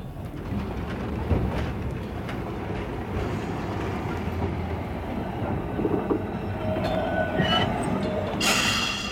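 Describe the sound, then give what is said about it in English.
A tram in Melbourne rolls steadily along its rails with a continuous low rumble and clatter, fairly loud, ending in a brief bright metallic squeal or hiss. “I'm a tram driver.”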